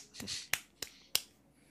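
Several crisp finger snaps in quick succession as applause, four sharp clicks at a loose, slightly uneven rhythm, close and clear with no talking over them.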